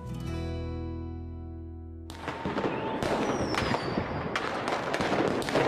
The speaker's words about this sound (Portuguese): Está ouvindo o barulho dos fogos? Sim, mais um ano está terminando.